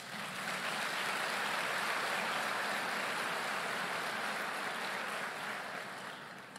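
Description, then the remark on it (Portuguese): An audience applauds for Jesus after a prayer, in a steady, dense wash of clapping that holds evenly for several seconds, then gradually tapers off toward the end. No one speaks. “Aplauda Jesus.”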